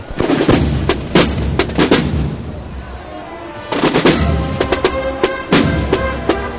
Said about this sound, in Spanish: Escuchamos la banda.